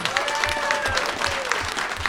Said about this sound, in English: That's a, and a round of applause for